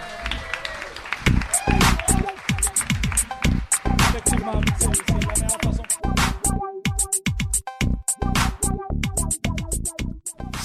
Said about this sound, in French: Ben, que je vais commencer en vous remerciant énormément tout le monde d'avoir participé et d'avoir assisté à l'émission. Vous pouvez vous applaudir, j'imagine.